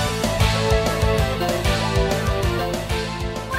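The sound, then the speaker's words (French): Upbeat music from Windjammers, a 1990s frisbee video game, plays loud, with a punchy repeating bass beat under bright, busy synth melody lines, and no one talking over it. “Cette musique, c'est celle de Windjammers.”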